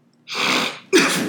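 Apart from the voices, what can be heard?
sneeze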